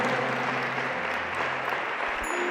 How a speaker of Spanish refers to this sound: Amén. Dale un aplauso fuerte Señor. Aleluya.